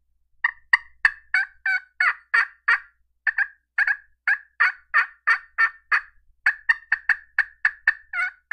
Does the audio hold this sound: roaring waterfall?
no